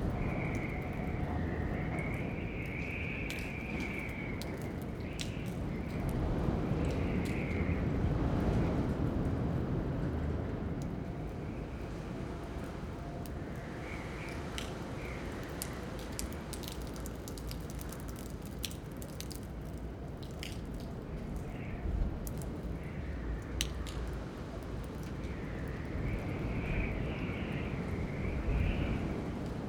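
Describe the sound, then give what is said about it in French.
Storm winds of over 100 km/h roar steadily down a street in Lille on 20 February 2022, a dense rushing noise that swells in gusts, with intermittent high whistling tones and scattered sharp rattles and clatters throughout; no one speaks. “Il y avait une forte tempête à Lille avec des vents à plus de 100 km/h.”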